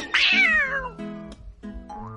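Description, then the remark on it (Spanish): A loud cat meow that slides downward in pitch, followed by a few shorter, steadier tonal calls, with no voices. “Porque viene el gato a comer ratón.”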